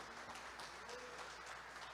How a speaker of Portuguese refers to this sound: Pode aplaudir a Jesus.